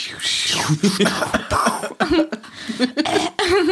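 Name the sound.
cough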